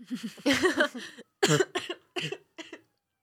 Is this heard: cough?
yes